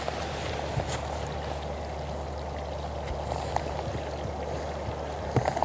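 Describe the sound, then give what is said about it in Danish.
A steady babbling stream, water trickling and gurgling continuously, with occasional small splashes and no voices. “Men man kan høre vandløbet, der klur.”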